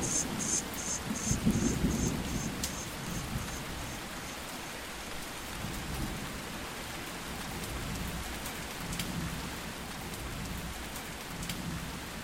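A steady, dense downpour of heavy rain hisses continuously, with low rumbles underneath like thunder and scattered sharp drips and taps throughout.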